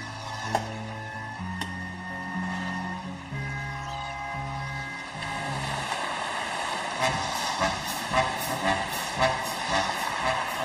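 An instrumental song intro from the Soviet animated film The Adventures of Captain Vrungel: a stepping low melody of sustained notes, then a fuller, busier arrangement with rushing, surf-like texture swelling in. No one speaks.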